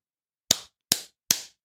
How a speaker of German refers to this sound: Soll, ich, soll ich klatschen zur Synchronisation oder so? Klatsch.